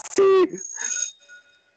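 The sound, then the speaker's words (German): A short burst of voice is followed by a bright bell tone that rings once and fades away slowly, its high metallic shimmer lingering for about a second. “Danke für die zweite Glocke.”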